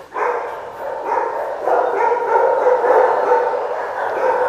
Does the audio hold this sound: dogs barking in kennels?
yes